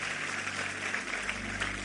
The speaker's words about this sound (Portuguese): Então vamos aplaudir a Ele.